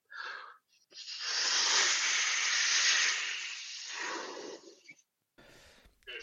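Someone blows hard into a rubber balloon: a short puff, then a long, steady, breathy rush of air lasting several seconds, a brief pause, and the start of another forceful breath.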